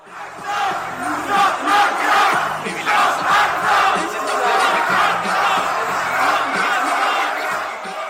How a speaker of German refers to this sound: So hört sich eine Demonstration gegen ACTA in Köln an.